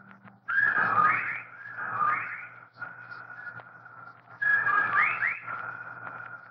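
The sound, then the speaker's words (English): A legion of whippoorwills calls loudly and rhythmically outside a bedroom window, with whistled notes rising and repeating over a steady hum in the background. “While outside the window, a legion of whippoorwills cried loudly and rhythmically, endlessly.”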